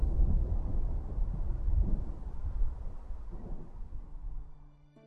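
A deep, sustained rumble of thunder rolls over gusting storm wind, loud at first, then gradually fading away toward the end, with no voices present.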